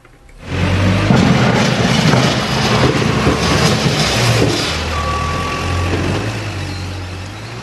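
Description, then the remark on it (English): A gritting lorry's diesel engine rumbles loudly as it reverses at a Hertfordshire County Council highway depot by the A1 in Stevenage, its electronic warning beeps sounding over the steady engine noise. No one speaks. “we're down at the depot here, just by the A1 and Stevenage. You've got a fleet of gritting lorries here.”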